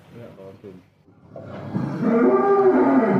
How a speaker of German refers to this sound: Also wir stehen jetzt im Stall, alle Kühe sind angebunden und haben Freude an dem Essen, an dem Mittag, das ihr vorbereitet habt.